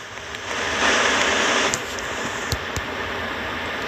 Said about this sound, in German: Boah, ist das laut. Ich mach, mach meinen Ventilator leiser.